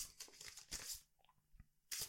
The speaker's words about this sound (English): Okay, so I'm creating my opponent, which is a rook, and I'm just going to shuffle the cards.